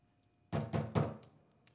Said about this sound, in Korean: 아래쪽에서 쿵쿵 문을 두드리는 소리가 나고 굵은 목소리가 들리더니 이어서 계단을 올라오는 육중한 발소리가 들렸다.